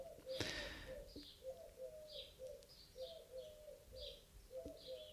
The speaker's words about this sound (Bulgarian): Ех, бухале, дай, мини първо ти, аз после ще записвам подкаст.